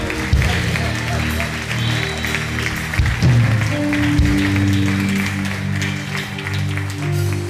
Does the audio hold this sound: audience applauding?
yes